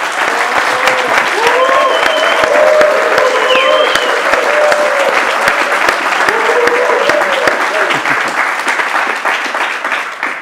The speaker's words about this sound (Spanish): Así que para que se den cuenta que esto es cierto, voy a pedir al público que está con nosotros que partamos con un aplauso grande.